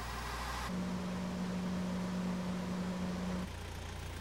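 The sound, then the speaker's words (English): A steady, muffled car engine drone as heard from inside the vehicle, with a sustained low humming tone rising above it for a few seconds before dropping away. No one speaks. “On this computer screen, frequencies can be enhanced or reduced to change the sound of the car.”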